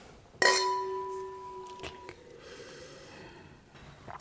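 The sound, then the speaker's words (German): Wine glasses clink once in a toast, a sharp bright strike whose high ringing tone lingers and fades over about a second and a half, followed by soft breathy rustling. “Cheers.”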